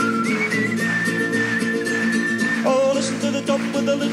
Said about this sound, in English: There's a whistling bit you can join in if you like.